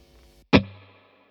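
A single sharp percussive hit rings out after a faint low hum, followed by a smooth reverb tail that fades over about half a second, with a low tone lingering longest.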